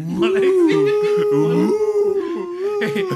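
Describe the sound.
During a stand-up comedy performance, a person imitates a wolf with a long, sustained vocal howl that holds a steady pitch and wavers near the end, loud with harmonic overtones, other voices faintly underneath.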